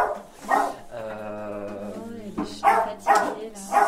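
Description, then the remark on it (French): A small guide dog puppy from a school for guide dogs whines in a long, high drawn-out tone, then lets out three short, sharp yipping barks, with a person murmuring briefly. “c'est un petit chien de euh, l'école des chiens guides d'aveugles.”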